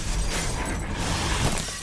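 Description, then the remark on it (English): A loud car crash on the side of Route 1 as the front of the car caves in and the airbag deploys, with glass shattering, a dense wash of crunching and tinkling debris that stays steady for the whole moment, with no voices. “I can still hear the tinkling of broken glass, the steaming of the cracked radiator when the initial shock subsides and the freshly deployed airbag begins to deflate.”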